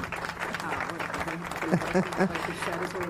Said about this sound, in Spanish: Ajá, para que escuches esos aplausos que te están dando.